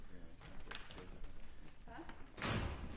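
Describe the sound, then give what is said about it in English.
A numbered door, leading into a building's main concert hall, swings open and shuts with a solid thud near the end, after a stretch of indistinct voices murmuring in the background. “Suddenly, passing through one of these numbered doors, we find ourselves in the middle of Vega, the main concert hall”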